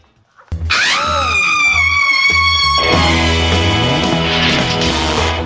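A rock musical's song intro starts after a short silence with loud, sustained, bright tones and a bending note, then a fuller band sound joins halfway through, with no singing yet.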